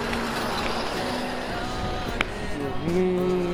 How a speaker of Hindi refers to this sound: फिर शांत हो गए फिर और एक गाड़ी आ गई फिर ये तो नहीं थी महाराज महाराष्ट्र शासन की फिर और एक गई इसके पीछे